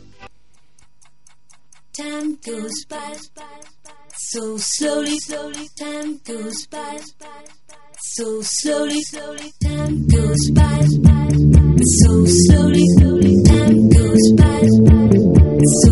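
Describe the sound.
A pop dance song opens with a steady, clock-like ticking pattern, then bursts into a loud, full groove with pulsing synths and a driving beat about two-thirds of the way through.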